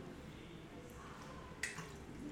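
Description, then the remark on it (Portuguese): A speaker pauses to take a quick drink of water, with a soft liquid sip and a brief sharp slurp midway against a quiet, steady background. “Pausa para água.”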